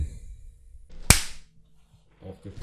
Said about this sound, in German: Ähm, ja, mit diesem ah, Klatscher ja. äh, sage ich willkommen zurück vom Film.